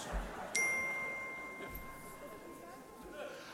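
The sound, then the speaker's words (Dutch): A small bell is struck once and clearly, its bright metallic ring lingering and slowly fading over a few seconds against a quiet background. “Geen zinsbegoocheling, nee echt, daar klinkt een bel.”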